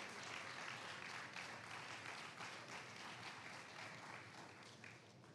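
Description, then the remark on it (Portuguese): A large crowd claps together in dense, steady applause for Jesus for several seconds, easing off slightly toward the end, with no voices standing out. “Você pode aplaudir a Jesus por isso, meus irmãos?”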